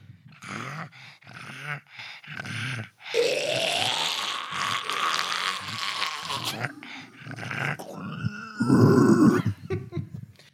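A dog grunts and growls into a microphone, a series of low, rough throaty rumbles broken by short pauses, with one long sustained growl in the middle and louder snorting grunts near the end.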